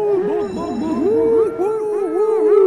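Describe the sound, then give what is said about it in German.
A voice imitates a fairground ride announcer, shouting loudly in a drawn-out, sing-song way with a wavering pitch and an echoing, reverberant tail throughout a few seconds. “Hart ins Echo reingescheppert.”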